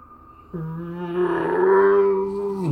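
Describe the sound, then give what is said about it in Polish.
A single eerie, howling roar from a lake in an empty place without buildings rises suddenly and holds steady as a loud, low, droning tone for about two seconds, swelling slightly before breaking off, with no voices. “Jest pusto, jest tylko jezioro, które wyje”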